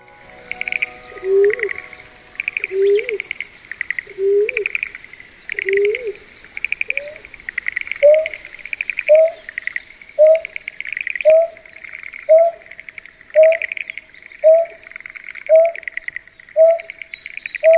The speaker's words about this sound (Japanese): タマシギですシギの仲間で鳩くらいの大きさの鳥